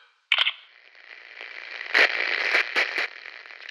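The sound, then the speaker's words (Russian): Door locks being unlocked to open outward, with a series of sharp mechanical clicks, about five in an irregular sequence, cutting through a steady hissing background noise. “За 10 секунд до отключения света разблокируйте двери наружу, чтобы щелчки погромче.”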